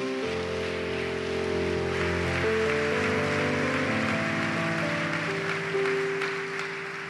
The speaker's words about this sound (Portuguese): Vamos aplaudir bem alto a Jesus.